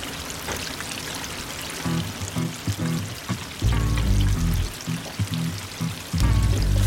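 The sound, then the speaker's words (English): A busy KFC fast-food kitchen in a concept store in Hong Kong: a steady hiss of frying and pouring, with deep rumbling bursts and clattering surging in and out, and no one talking. “And we're in the kitchen. As you can wow. hear.”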